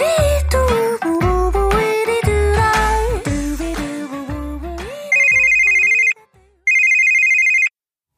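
On the KBS Cool FM radio show Mister Radio, upbeat music with a thumping bass plays for a few seconds, then gives way to two loud, steady bursts of a high electronic telephone ring separated by a brief pause, opening a segment of phone calls to listeners.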